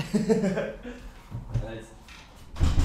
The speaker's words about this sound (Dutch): ik ga heel even snel het raam hier dicht doen, want ik hoor al sirenes op achter. achtergrond.